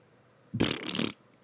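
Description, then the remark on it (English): A single raspy, sputtering farting noise blown with the mouth, lasting about half a second, fairly loud, with no talking around it. “I just made a farting noise.”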